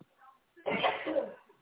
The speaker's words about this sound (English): Bless you.